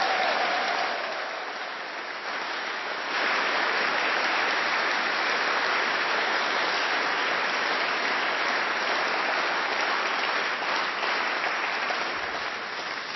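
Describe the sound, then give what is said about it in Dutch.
Sustained audience applause for the evening's main director fills the space, a dense steady wash of many hands clapping that swells slightly after a few seconds and continues evenly without speech. “En hij is eigenlijk wel de hoofdregisseur van deze avond, dus voor hem nog een hartelijk, hartelijk extra applaus.”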